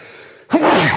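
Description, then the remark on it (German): A single sudden sneeze bursts out after a brief quiet moment, loud and breathy with a short voiced edge. “Entschuldigung. Gesundheit.”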